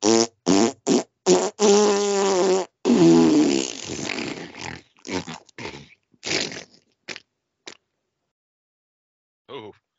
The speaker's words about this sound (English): did that, that fart? Sounded like it came with a receipt.